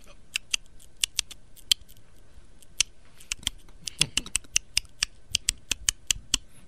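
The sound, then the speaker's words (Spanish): Quick, irregular tapping clicks of someone typing a text message on a phone, dozens of crisp light ticks in bursts with short pauses, over a faint low hum and no voices. “¿Eso qué es? Está escribiendo un mensaje de texto.”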